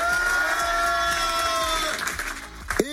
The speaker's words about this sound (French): Eh bien bienvenue, bonsoir tout le monde, ça va, ça va, ça va, je vous ai entendu crier, comment ça va